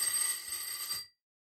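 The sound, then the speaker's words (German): A doorbell rings in one continuous, bright, buzzy burst lasting about a second, holding steady high tones before cutting off abruptly into silence. No voices are heard. “Also es hat oh, geklingelt”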